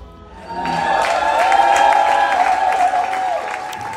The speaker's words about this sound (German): Sie sind begeistert, sie klatschen, sie grölen, sie lieben eigentlich den Auftritt auch, weil es so unüblich ist, dass man in dieser Szene eben selber singt.